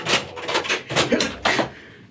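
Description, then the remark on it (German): A locked door rattles, jerked in four or five uneven, clattering bursts over a couple of seconds, fading slightly at the end. “Warum geht die, die, die Tür nicht auf? Wieso hat sie wieder abgeschlossen?”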